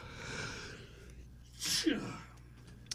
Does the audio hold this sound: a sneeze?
yes